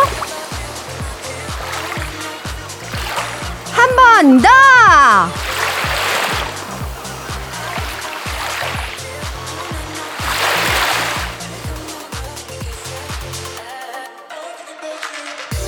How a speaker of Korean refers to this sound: 그렇다면 시원한 파도 소리 한번 들을까요?